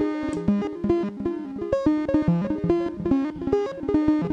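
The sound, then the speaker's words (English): A harmonically rich, distorted synth line whose grit swells and pulses quickly in a fast, regular rhythm, with rapid note changes, loud, with no voices; a four-band distortion with its high and high-mid bands turned down, modulated by CV control at increased speed. “turn the CV control back on with the increased speed.”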